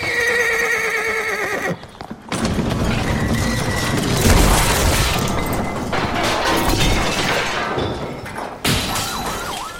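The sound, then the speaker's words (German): A loud, sustained clattering crash as a donkey in a stable of thoroughbred breeding horses pulls the cart it is harnessed to and knocks over a whole shelf of equestrian trophies, with heavy thuds, hoofbeats and braying whinnies, in a Skolimowski film; no one speaks. “Stoisch wie Buster Keaton blickt der Esel in die Kamera, zieht am Karren, an den er gespannt ist, und wirft damit ein ganzes Regal mit Reitsportpokalen über den Haufen.”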